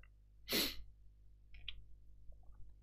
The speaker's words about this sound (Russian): А чуть я чихнул-то вообще не в кассу.